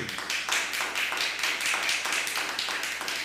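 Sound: applause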